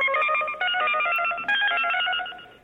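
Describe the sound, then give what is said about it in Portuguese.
A loud electronic telephone signal tone plays alone in a WhatsApp audio message, a rapid series of bright, steady beeping pitches lasting a few seconds, like the automated tone announcing a collect call. “Chamada cobrar.”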